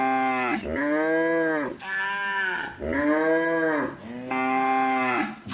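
A cow moos loudly, a run of four or five long, drawn-out lows following one another with only brief breaks, and no talking over them.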